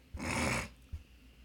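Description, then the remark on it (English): A single short, breathy snort bursts out, loud and rough for about half a second, followed by a faint soft bump and then quiet. “I got snored for a second.”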